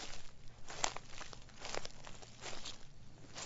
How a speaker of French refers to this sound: Nous sommes à la maternité de Rennes, à l'automne 1992. Devant l'immense porte vitrée, Pauline, la future maman de jumeaux, arrive péniblement en piétinant dans les feuilles mortes.